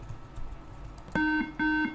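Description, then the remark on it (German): Two short electronic beeps from a computer during login after a username is entered, each a steady, buzzy tone lasting about a quarter second, clear and prominent over a faint background hiss. “Zwei Pieptöne.”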